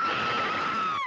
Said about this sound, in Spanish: Personas relataban haber escuchado lamentos en el transcurso de la madrugada, gritos ahogados